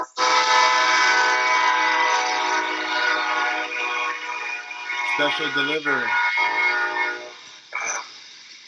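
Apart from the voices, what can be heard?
train passing with horn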